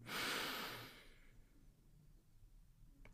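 A single deep breath drawn in through the nose during a guided group breathing exercise, airy, swelling for about a second before fading into quiet room tone.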